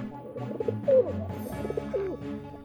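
Pigeons cooing in soft, throaty, repeated calls, several overlapping in a steady burbling rhythm with a low rumbling undertone, moderately loud and with no talking.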